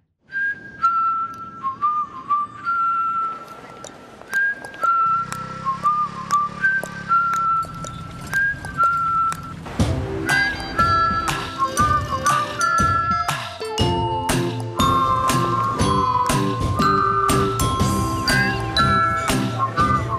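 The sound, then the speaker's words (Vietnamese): A catchy jingle from a Vinaphone 3G mobile network TV advertisement: a bright whistled melody plays alone at first, then bouncy full instrumental backing with chiming bell-like notes joins halfway through, loud and upbeat, with no voices. “Ở cái giai đoạn 3G thì tất cả các nhà mạng đều chạy quảng cáo rất kinh dị”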